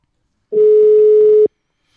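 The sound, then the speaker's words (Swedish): A single steady telephone ringback tone sounds during an outgoing call, one clear beep lasting about a second, moderately loud and alone, with silence before and after. “Så att vi ringer upp en av dem som står bakom detta.”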